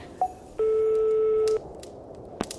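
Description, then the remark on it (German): Telephone touch tones as a phone number is dialed on speakerphone: a quick short beep, then one long, steady electronic tone held for about a second, followed by a few faint clicks in otherwise quiet surroundings. “So, hier ist die Telefonnummer.”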